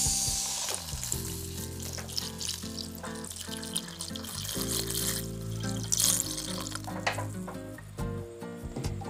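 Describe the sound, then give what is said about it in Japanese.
Diluted mentsuyu noodle broth is poured over cooked vegetables in a hot pan. A steady splashing pour runs over a continuous sizzling hiss that lasts several seconds, with no one speaking. “まあ、この後またあのめんつゆで煮ますのであのだいたい煮えていれば大丈夫ですもういいようですねここにさっき薄めためんつゆを加えていきます”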